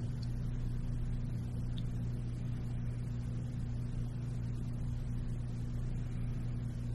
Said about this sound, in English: Presently happening phenomena. sound of the heating system.